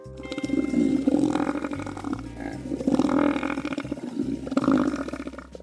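An elephant seal called Robert lets out three long, guttural grunting roars, loud, each rumbling bellow separated by a short pause, with no talking.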